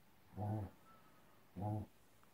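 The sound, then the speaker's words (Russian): A sleeping pet named Pusya snores twice, each snore a short, low, throaty rumble with a buzzing, harmonic quality, separated by about a second of quiet breathing. No one speaks. “Это Пуся храпит.”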